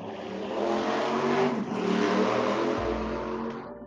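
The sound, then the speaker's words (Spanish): Several motorcycle engines rev loudly and continuously for a few seconds, a dense roar with rising and falling pitch and no voices. “Vaya, las motos.”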